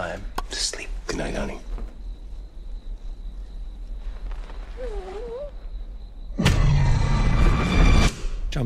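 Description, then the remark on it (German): A film jumpscare effect: a quiet, uneasy stretch of faint whispery noise and a thin high whine gives way to a sudden, loud, crashing burst that blares for about two seconds. “Jumpscare. Aber warum muss dieses Geräusch da sein? Damit du dich erschreckst.”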